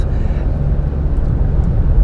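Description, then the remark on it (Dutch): Steady low rumble inside a moving car on the drive back home, a loud, continuous drone of engine and road noise with no voices, unchanging throughout. “En nu zit ik in de auto en nu denk ik, ja, hier wil ik een podcast over opnemen.”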